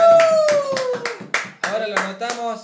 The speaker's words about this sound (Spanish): Fuerte el aplauso.